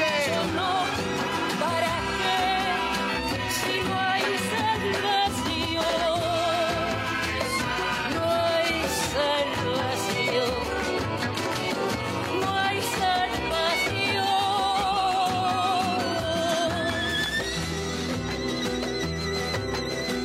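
Instrumental hip hop with a tango flavor plays loud and continuous, a steady beat under wavering, vibrato-laden melodic lines, with no voices throughout.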